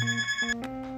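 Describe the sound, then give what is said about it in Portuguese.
A telephone rings with bright electronic tones that step between a few pitches in about a second, played alone at moderate loudness with no voices. “Olá, tocou o telefone.”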